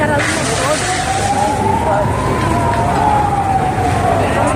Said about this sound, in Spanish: Han acordado la zona, es un no cesar de, de ambulancias, policía, bomberos y bueno, eh, está aquí todo el mundo poniendo su parte